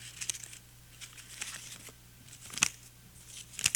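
Dry, crackling paper noises: several sharp crinkles and rips scattered over a few seconds, moderately loud, with a steady low hum underneath and no one talking.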